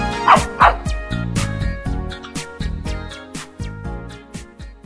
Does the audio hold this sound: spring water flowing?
no